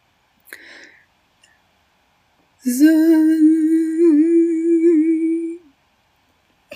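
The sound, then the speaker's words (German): After a brief breathy puff, a voice hums a steady, slightly wavering buzz for about three seconds, fairly loud, imitating a bright bee. “wie eine, eine helle Biene. Mhm. Mm, die fliegt gerade zu euch.”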